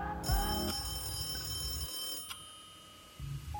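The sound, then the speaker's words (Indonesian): A telephone rings in a dark living room at home with a bright, steady electronic tone, heard alone over a low rumbling background for a few seconds, moderately loud. “Kemudian, telepon tiba-tiba berdering.”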